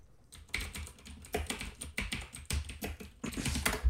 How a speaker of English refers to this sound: yeah, that is a loud ass keyboard. God damn, man, keep it down.